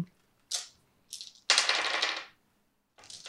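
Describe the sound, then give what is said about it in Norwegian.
A cannon fires three shells at a gate, aimed at the corner where the gate is hinged: a series of sharp, crackling blasts, one drawn out with a rumbling tail, separated by short pauses; no one speaks. “De skyter totalt eh, tre granater på porten.”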